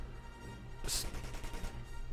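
Gunshots outside, a sharp crack followed by a rapid string of softer bangs, muffled, with no voices.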